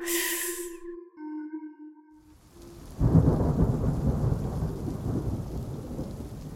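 Eerie sustained tones fade into near silence, then a heavy roll of thunder breaks in and rumbles on loudly over steady rain for the rest of a night storm on 2 July 1947 around William McBrezel's ranch.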